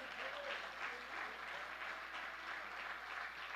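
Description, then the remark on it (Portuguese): An audience applauds steadily, a dense, even wash of many hands clapping for several seconds with no break, bright and sustained without individual claps standing out. “Você pode aplaudir mais uma vez, Jesus.”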